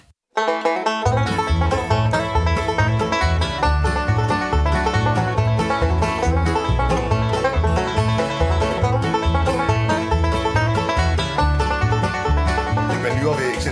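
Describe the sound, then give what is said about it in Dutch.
Lively bluegrass music from a band playing live as the first band of the evening at 7 pm, loud and steady throughout, with quick plucked string runs over a bouncing bass rhythm, starting abruptly after a brief moment of silence. “En dat vond ik direct wel tof, want dat was Bluegrass.”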